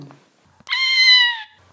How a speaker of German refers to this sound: Katzen, das, das Miauen, das Rufen machen sie für die Menschen